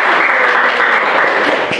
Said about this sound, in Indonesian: Oke, beri tepuk tangan dulu buat itu.